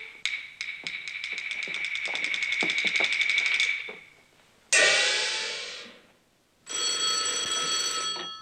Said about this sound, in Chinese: 太君，中心炮楼电话